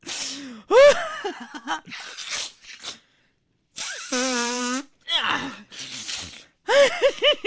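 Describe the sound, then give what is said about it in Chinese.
A voice imitates a crying high-school exam-taker phoning a radio listener hotline: wavering, high-pitched wails and gasps broken by a long drawn-out cry and noisy, snuffling bursts of nose-blowing, loud and without words. “哎，我说你那电话都让你擤鼻涕擤埋汰了吧？”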